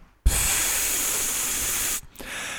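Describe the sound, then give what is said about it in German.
A person imitates the pneumatic air-release heard each time walls are raised and lowered by air pressure, with a loud, steady hiss lasting nearly two seconds, cutting off abruptly, followed by a brief quieter breathy trace. “Der, dieses ganze Konzept des Anhebens und Absenkens dieser Wände, diese Zentimeter, ähm, das passiert mit Luftdruck. Das heißt, mhm. jedes Mal, wenn die Wand sich hebt und senkt, hört man”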